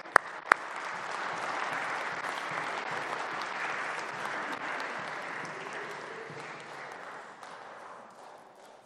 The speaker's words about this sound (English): Give Jason a round of applause.